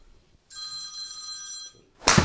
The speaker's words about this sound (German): dann klingelt das Telefon und Thorsten Felske ruft an